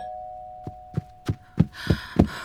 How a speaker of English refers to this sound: What? Why are you ringing the doorbell? What are you doing?